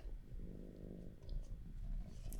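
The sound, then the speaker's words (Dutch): A cat purrs softly and steadily, a low continuous rumble with gentle rhythmic pulsing and no voices. “je wil trouwens echt heel erg mijn ka kat knorren.”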